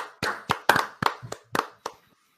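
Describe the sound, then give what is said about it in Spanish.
A short burst of hand clapping, about eight sharp claps at a steady, slightly uneven pace, clear, ending abruptly with no talking over it. “Un aplauso, sí, para un aplauso.”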